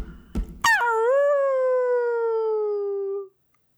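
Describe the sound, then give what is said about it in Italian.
A short thump, then a single loud, drawn-out werewolf howl that slides slightly downward in pitch and holds for nearly three seconds before cutting off, alone with no talking. “Sentì qualcuno che stava correndo velocemente nel suo cortile e sentì un forte ululato.”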